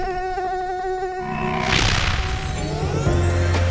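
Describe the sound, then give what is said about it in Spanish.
A high-pitched Aedes aegypti mosquito whine drones steadily for about a second, then gives way to a loud whooshing burst and a jumble of lower rumbling, clattering noise. “Esto es asistir a la vivienda del paciente y a la de sus vecinos, para identificar la presencia de potenciales criaderos del mosquito Aedes aegypti y proceder a eliminarlos.”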